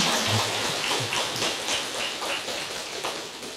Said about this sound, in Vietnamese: thầy đang khen những người trẻ tuổi mà đang có mặt trong pháp hội này để lắng lòng nghe pháp mà không đi rong ruổi với những cuộc vui bên ngoài xin cho một tràng pháo tay tán thán